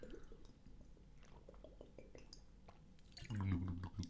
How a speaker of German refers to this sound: Ich muss mal gerade einen Schluck trinken. Mein Hals ist sehr rau.